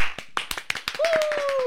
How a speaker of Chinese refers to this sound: 然后我才意识到，哦，对，谁来报树的确是一个有很多很多工作人员促成的节目，掌声鼓励。